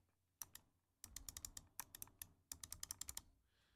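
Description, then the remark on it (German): Crisp mouse-button clicks from a Razer mouse with second-generation Razer optical switches, in quick bursts: a pair, then rapid runs of several clicks each, fairly quiet overall with no talking. “Weitergehend hat die Maus auch eben die Razer Optical Maus Switches der zweiten Generation mittlerweile.”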